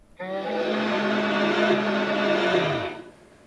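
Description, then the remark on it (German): A fire-breathing dragon sound effect from the living book exhibit at the city museum in Ingolstadt, Germany, the dragon being the city's heraldic animal: a loud, steady roaring rush with a low whirring hum, lasting nearly three seconds before winding down and sinking in pitch at the end. No one speaks. “So klingt er, der feuerspeiende Drache beim lebendigen Buch im Stadtmuseum Ingolstadt.”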